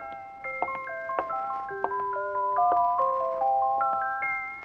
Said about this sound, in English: And there it is. What you heard, the music box, sitting on the counter next to the open door, playing.